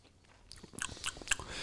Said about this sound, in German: Entschuldigung, ich esse mal.